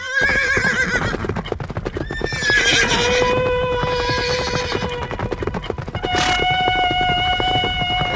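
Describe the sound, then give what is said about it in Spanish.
Horses neigh and whinny loudly and repeatedly over a steady clatter of hooves, like the pharaoh's horse-drawn chariot rolling out through the palace gates, with no voices. “abrimos las puertas de palacio para dejar salir al carro del faraón.”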